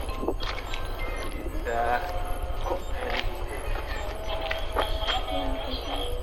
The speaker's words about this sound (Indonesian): gue jalan ke Swari dengerin dengerin iya kan? dan bel ini akan diulang lagi bunyinya